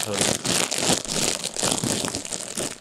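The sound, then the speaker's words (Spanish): Steady crinkling of paper or plastic as money is pulled out, a busy rustling texture with irregular louder bursts lasting the whole few seconds, with faint talking underneath. “Si a usted le molesta ese ruido, digamos. Es que quiero sacar el dinero de.”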